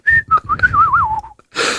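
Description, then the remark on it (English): A man whistles a short, wavering tune, the pitch sliding and warbling for about a second before a brief burst of rushing, hissy noise. “Lads whistling.”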